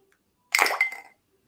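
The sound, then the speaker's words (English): A water- and shockproof device drops into a glass of water with a short, bright clink and a brief splashy rattle that fades within about half a second, otherwise quiet. “pop it into the water”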